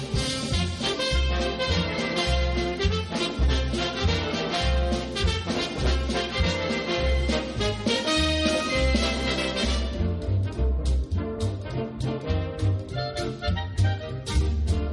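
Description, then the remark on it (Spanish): A lively classic Hollywood musical theme from the film Un día en Nueva York plays loud and full, with brassy orchestral swing over a steady pulsing bass line; the arrangement thins slightly near the end, and nobody speaks. “Vamos a pasar un día en Nueva York, que de hecho es el tema que está flotando.”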